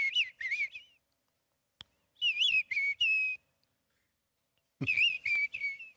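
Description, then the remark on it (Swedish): A person whistles in imitation of a mistle thrush's song, three short bursts of warbling, fluting phrases separated by pauses, clear with no talking. “En dubbeltrast alltså.”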